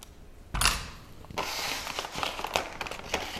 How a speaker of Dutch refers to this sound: Ik heb hier kaas en ik ga hier, ik denk vier plakken van snijden. Eh, hoe heet zoiets? Ik vergeet dat altijd. Raspen, snijden, schaven.